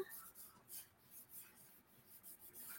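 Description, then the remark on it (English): Soft scratching of a pen on paper as a name is written, a quick series of short strokes and scribbles with brief pauses between, quiet and with no voices. “okay, they want me to write your name”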